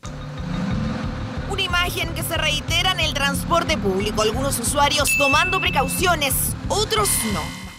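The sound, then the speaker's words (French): Steady low engine rumble inside a city bus in Santiago, with several passengers, some wearing masks, talking nearby throughout and a brief high electronic beep partway through. “Ce bus à Santiago, certains portent déjà des masques, d'autres non.”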